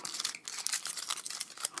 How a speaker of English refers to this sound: I've been trying not to like rustle too you much. You hear this rustling? In the in the You hear this this foil